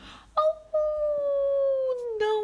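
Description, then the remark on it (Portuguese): A voice imitates a wolf's howl as the wolf in a story opens the door of its house on a Sunday morning: a loud, drawn-out cry that starts with a short yelp, then holds a steady wavering tone that slowly slides downward and rises briefly again at the end. “Domingo de manhã, quando abre a porta da casa, o lobo solta um grito:”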